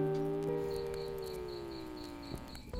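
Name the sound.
crickets chirping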